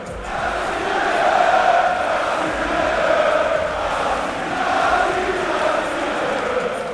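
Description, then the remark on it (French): A large crowd at a fight roars and chants in support of a French female fighter, urging her to beat her opponent, in steady, swelling waves, the dense mass of voices rising and falling in a loose rhythm without any single voice standing out. “Le public est derrière elle et lui demande de casser la gueule de son adversaire.”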